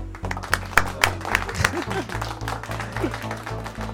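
A burst of applause, with scattered claps crackling over a steady low musical tone and a few faint voice murmurs, holding at moderate loudness for several seconds.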